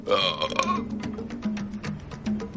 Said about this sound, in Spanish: Y eructó, con hedor de sangre.